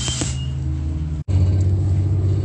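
boarding a city bus

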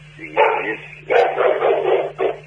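dog barking

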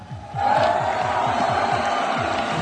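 applause and cheering

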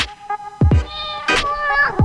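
cat meowing

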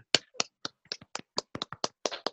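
hand clapping

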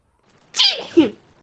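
sneeze

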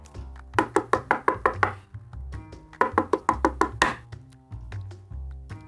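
knocking on a door

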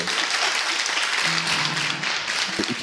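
applause

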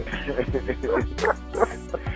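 dogs barking and whimpering

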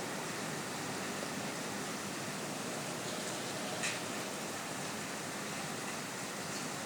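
rain falling

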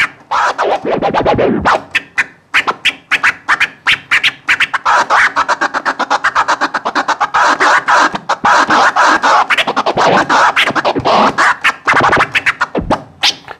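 DJ turntable scratching

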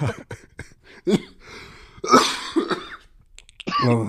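coughing fit

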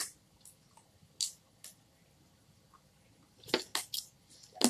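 drinking water

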